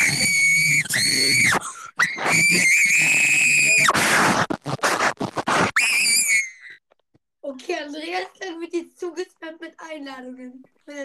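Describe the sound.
A person screams loudly and shrilly in long, piercing bursts for several seconds, then the screaming stops and a voice speaks normally at a calmer level.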